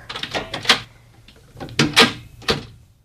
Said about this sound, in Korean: 그렇게 그녀는 제 앞에서 문을 닫고 말았습니다.